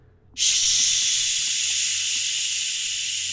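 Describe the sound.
A voice makes a steady, loud hissing 'shhh' that imitates water running from an open hotel bathroom sink faucet. It starts abruptly and holds for about three seconds with no talking.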